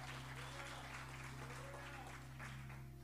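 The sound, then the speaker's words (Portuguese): An audience at a church service applauds steadily in praise of God, dense continuous clapping over a low sustained hum, with faint voices mixed into the crowd noise. “Dê um aplauso bem forte ao Rei da Glória.”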